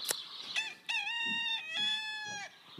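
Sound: rooster crowing sound effect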